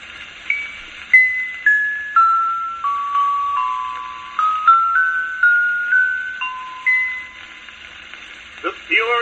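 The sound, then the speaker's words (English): Orchestra bells ring out a slow descending-then-rising melody of single clear struck tones, each decaying before the next, over a steady hiss of an old recording. “And from the simple brassy note of the bugle to the delicate tone shading of the violin, note the ringing clarity of the orchestra bells.”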